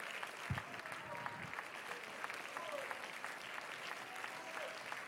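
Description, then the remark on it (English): An audience claps hands in worship, a dense, steady wash of applause lasting the whole stretch, with a few faint voices rising beneath the clapping. “Oh, come on, clap your hands, worship the Lord.”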